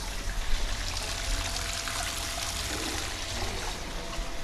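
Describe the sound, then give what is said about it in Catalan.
Warm thermal water flows and trickles steadily at the Caldes d'Estrac (Caldetes) spa, a continuous wash of splashing liquid with a low rumble underneath, no voices present. “Com vosaltres suposo que podeu sentir, tenim aquí amb nosaltres el brou de l'aigua.”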